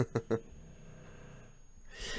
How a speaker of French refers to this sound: Vous entendez C'est Brioche qui euh, ronfle